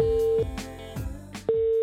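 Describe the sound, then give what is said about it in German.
A mobile phone call ringing out, placed shortly before Christmas to a person on tour: a steady electronic ringback tone sounds, breaks off for about a second of softer clicks and noise, then the same tone resumes, clear. “Ich habe Stress auf seiner Tour kurz vor Weihnachten am Handy erwischt.”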